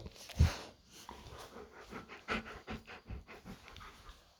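A dog named Duque pants in quick, steady breaths, with a louder thump near the start and soft rustling around it; no one speaks.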